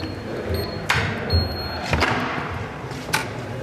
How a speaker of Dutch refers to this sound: Zullen we naar binnen gaan? Wat mij betreft wel, maar dan moet ik wel eerst even de deur open doen via een speciaal slot, want het is eigenlijk streng geheim.